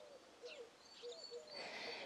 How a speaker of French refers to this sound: Il y a encore de la brume matinale accrochée aux arbres. J'entends le chant des oiseaux.